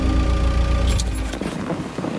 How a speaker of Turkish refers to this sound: uzun boylu kavakların karşılıklı olarak sıralandığı kaldırımın kenarına park ettiler araçlarını.